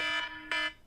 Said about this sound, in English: I'm sorry, that was my alarm going off, guys. Please forgive me on that one.